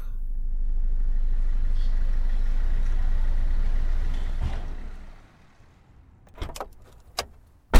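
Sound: key turning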